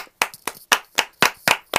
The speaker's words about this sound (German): Kurzer Applaus an uns.